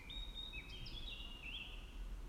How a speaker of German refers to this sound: Es ist Frühling und die Vögel zwitschern